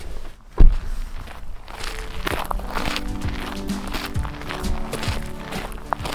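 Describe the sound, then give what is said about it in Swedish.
Someone gets out of a car at one of the places in Mariehamn where boule is played: a single heavy thump, then a steady run of footsteps over a faint, continuous hum, with no one speaking. “Så nu ska jag kliva ur bilen här.”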